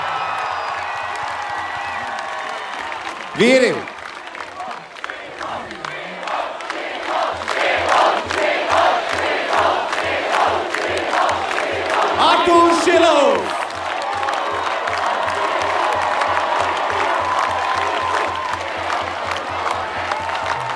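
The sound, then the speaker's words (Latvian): A huge crowd in Riga roars and cheers continuously for the Latvian national ice hockey team, breaking into steady rhythmic clapping partway through, while an announcer's amplified voice calls out over the din. “Ei, uzgavilēsim vēlreiz Latvijas Hokeja izlasē! Labākie!”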